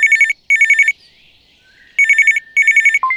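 A telephone rings loudly in two double bursts of rapid electronic trilling, separated by a short pause, then a brief click as it cuts off. No one speaks.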